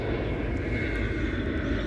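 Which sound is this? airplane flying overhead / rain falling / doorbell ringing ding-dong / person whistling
airplane flying overhead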